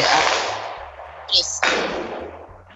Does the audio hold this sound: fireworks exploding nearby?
yes